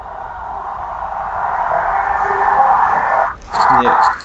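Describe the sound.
An American football game's highlights play on a TV just as a touchdown is scored, a steady wash of crowd roar briefly dipping before a broadcaster's voice cuts through near the end.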